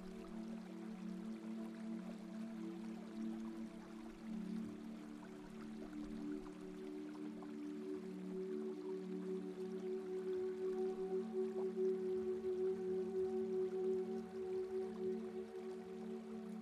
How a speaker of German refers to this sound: Von weitem hörst du das Rauschen von Wasser. Und beim Gehen siehst du schon das erste Funkeln von klarem Wasser in einem Fluss.